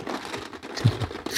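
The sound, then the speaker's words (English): Slips of paper bearing draft picks rustle and crinkle as they are shaken around inside a skull, a short, busy burst of dry scraping with no voices. “I will give them a good tussle to make sure that uh, we don't just pick someone's that we just put at the top.”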